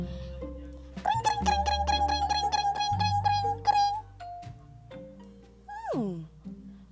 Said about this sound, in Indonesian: ibu dan Momo mendengar suara bel sepeda yang sangat banyak